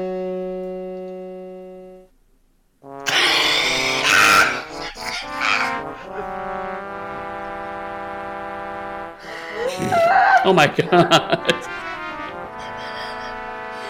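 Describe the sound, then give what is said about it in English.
Harsh, buzzy electronic keyboard tones blare in a disorganized jumble, brassy horn-like chords stacking and clashing loudly with no clear melody, after a brief steady drone and a short pause; a voice briefly exclaims. “It's like someone just found the fart filter on an electronic keyboard, just slammed yeah. the keys repeatedly.”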